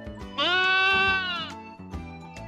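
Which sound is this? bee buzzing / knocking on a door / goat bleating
goat bleating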